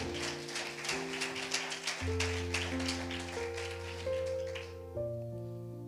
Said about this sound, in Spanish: No, si le va a dar el aplauso, se lo da en serio, si no, no se lo dé.